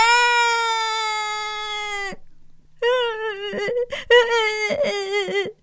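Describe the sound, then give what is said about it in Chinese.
A storyteller's voice imitates the loud, high wailing cry of Stan, a little boy in a story: one long sustained howl, a short pause, then a second wavering sob that breaks into choppy bursts. “他的哭声越来越大，越来越大，身旁所有的人都不知道他怎么了。”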